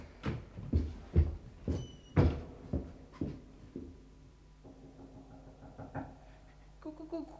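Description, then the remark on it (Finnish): Heavy, hollow knocking from inside a king's coffin: about eight irregular thuds in quick succession, loud, then a few softer taps and faint creaks as it dies away. No one speaks. “Kuulitteko, mestari? Yhä kuninkaan ruumisarkussa koputtaa.”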